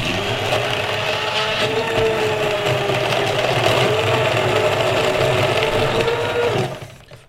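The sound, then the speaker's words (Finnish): A hand blender whirs loudly and steadily as it grinds against ice cubes in a drink of banana and dark Venezuelan rum, a dense motor drone with rattling crunches, running about six and a half seconds before cutting off abruptly. “Käsi sähkövatkaimella on hieman vaikeuksia näiden jääpalojen jääpalojen kanssa.”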